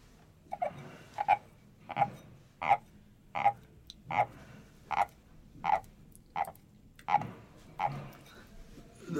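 A wooden frog souvenir instrument rasps out a steady series of about a dozen croaks, each a short ratchety scrape spaced evenly apart, clear with no voices.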